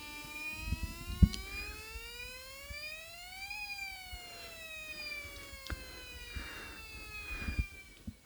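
The siren of an emergency doctor's vehicle wails steadily as the called emergency doctor arrives, its harmonic tone slowly rising in pitch, peaking, then falling again, with a few faint knocks and thumps in the background and no talking.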